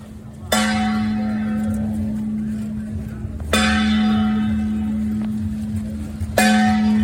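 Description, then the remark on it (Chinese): A Mazu palanquin procession on the way to Beigang passes very close by: a loud metallic bell or gong rings three times at slow, even intervals, each stroke ringing out over a steady low hum and soft murmur as the people following it fall very quiet. “你从声音当中可以感觉到妈祖其实他的銮轿就离我很近很近，然后呢，你会意识到所有跟着走的人都变得非常的安静。”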